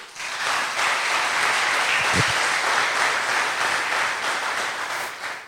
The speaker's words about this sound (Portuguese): Aplausos para Jesus, irmão.